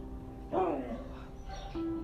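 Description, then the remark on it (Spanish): A small female dog whimpers softly: a brief rising whine, a quieter pause, then a thin steady whimper at the end, against a low background hum. “Si oyen ahí por ahí algún rasguño corrido o que están corriendo es porque mi perrita no ladra, pero si corre y...”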